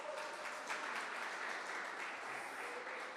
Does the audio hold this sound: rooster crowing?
no